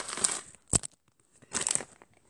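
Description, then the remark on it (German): Crackly crinkling comes in two bursts with a sharp snap between them, as biscuits are nibbled and a snack wrapper is handled. There is no talking. “und falls ihr da gerade ein Knastern hört, ein Knistern, ein Knaster knistern oder ein kleines”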